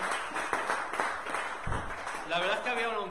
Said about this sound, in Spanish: Pues hermanos, sí, dale un fuerte aplauso, damos la bienvenida al Señor.